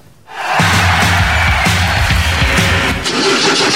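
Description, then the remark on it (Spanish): A car engine cranks and catches, then roars steadily and loudly with a throbbing low rumble, amid a wash of broad background noise. “¿Y arranca o no arranca? Siempre arranca con bujía Hescher... para motores diésel.”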